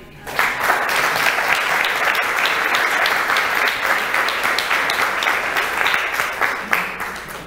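An audience at a sermon applauds steadily as an offering of applause to the Lord, a dense wash of many hands clapping that holds at an even, fairly loud level for several seconds without any voices standing out.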